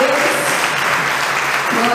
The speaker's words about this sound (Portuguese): Você pode aplaudir o Senhor por essa hora perfeita.